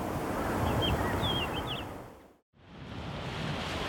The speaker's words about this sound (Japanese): 今朝は奥日光三霊瀑の一つ竜頭の滝が響かせるいい音